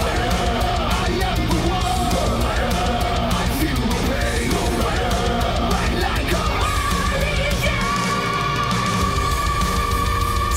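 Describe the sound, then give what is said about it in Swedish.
Loud, dense heavy metal track with pounding drums and distorted guitars, where a singer lets out high, piercing sustained screams that soar over the wall of sound in the second half. “Men de där skriken. Den där.”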